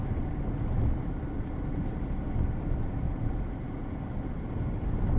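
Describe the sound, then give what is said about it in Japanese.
A 4WD car's tires spin steadily on packed, icy snow as the car slips and gets stuck trying to pull out of a narrow uphill road, a constant roar of revving engine and churning wheels with no breaks and no voices. “立ち往生しましたなんか坂道細いところから出ようとしたら滑って滑って出られなくなった危ね”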